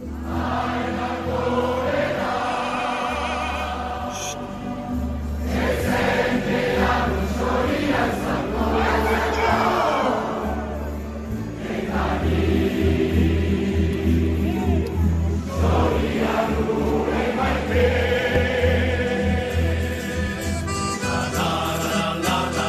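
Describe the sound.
A large crowd of Aviron Bayonnais rugby supporters below the town hall balcony in Bayonne, celebrating the club's promotion to the Top 14, cheers and sings together, loud and continuous, over a steady, repeating bass-heavy musical backing with rising and falling swells of voices.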